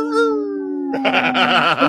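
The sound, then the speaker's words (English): A voice lets out a long, wolf-like howl, one steady note that slides gently downward, then turns rough and wavering toward the end. It's fairly loud, with no other sounds. “is the time to howl. Howl!”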